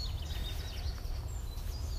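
Faint, high chirps from small birds twitter on and off in the background, set against a steady low outdoor rumble. No one speaks.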